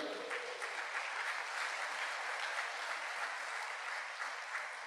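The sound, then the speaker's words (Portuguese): Sustained applause for Jesus from a large crowd during a Christian sermon, a dense, steady wash of many hands clapping at an even loudness for several seconds with no voices standing out. “Você pode dar um forte aplauso a Jesus por isso?”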